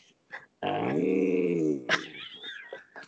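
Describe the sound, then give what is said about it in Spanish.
A man's voice imitates the growling voice of a big-nosed alien creature with wings from the planet Tatooine: one loud, drawn-out throaty growl lasting over a second, followed by shorter shrill squeals and raspy sputters. “lo, lo va a imitar a la perfección, mira.”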